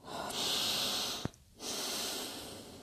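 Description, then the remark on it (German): A woman standing on a terrace draws a long, deep breath of fresh air in with a broad airy hiss, a brief pause, then a second steady inhalation, fairly loud with no talking. “Sie atmet die frische Luft ein.”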